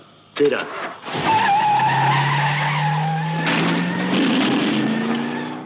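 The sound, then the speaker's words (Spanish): A car, the Blues Móvil (Bluesmobile), peels away with loud, screeching tires after a sudden start, its engine roaring and climbing steadily in pitch as it speeds off, for about five seconds. “Salimos corriendo con el coche de Los Ángeles y su Sleazy que nos brinda Ángel con otro episodio genial de las buenas heridas.”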